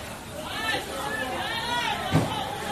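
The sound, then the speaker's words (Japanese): Busy Sunday free market, a small open-air vegetable market inside a residential complex in Beijing, with overlapping voices of vendors calling out, one advertising cheap melons, and crowd chatter, a steady murmur broken by a few louder shouted calls. “はい、えー団地の中に、私の住んでる団地の中に小さな野菜市場がありますので、はい、その物売りの声です。日曜日の自由市場です。”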